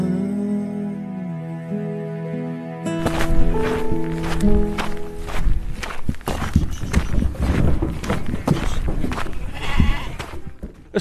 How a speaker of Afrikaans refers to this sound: lammers, bokke en skape word in 'n kraal naby die huis afgelaai.